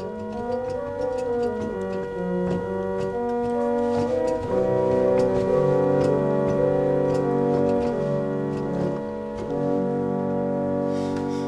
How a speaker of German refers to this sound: wenn ich im Gottesdienst reinkomme und wenn ich die Register einschalte und fürs Vorspiel mache ich es meistens ein bisschen mächtiger, dass ich da im Hintergrund was höre, das ist eine hängende Pfeife. Also das klingt dann ungefähr so.